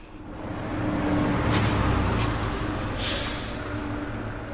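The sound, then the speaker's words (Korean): A city bus rumbles up to the stop, its heavy engine droning steadily while a few sharp hisses of air brakes burst out over the low traffic noise. “오메, 오메, 이 버스가 나 버스네.”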